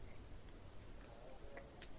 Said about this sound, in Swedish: vi sitter utomhus och man hör lite ljud. Det är några grannar och det är lite syrsor och det är väldigt harmoniskt. Månen är framme.